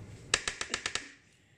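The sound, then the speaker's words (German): Six quick, sharp knife chops land on a cutting board in a steady, rapid rhythm, each a crisp tap, then the sound fades into quiet. No one speaks. “Und wir müssen dazu sagen, alle Essgeräusche sind schon, Schnippelgeräusche sind schon erledigt.”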